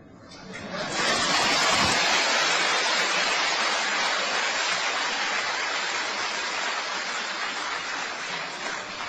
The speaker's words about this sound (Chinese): 这话呀，这个掌声里面有一半有点投机的意思，啊，真的是这话说了一半。